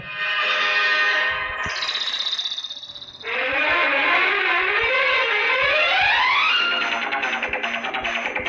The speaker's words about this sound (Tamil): அதையும் நான் உங்களுக்கு இது பண்ணுறேன் கேட்டு பாருங்கள் இந்த பாட்டை